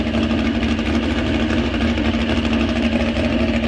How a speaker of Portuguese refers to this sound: E, cara, é, nem ela notou isso. Vamos dormir e tá lá o carro ligado.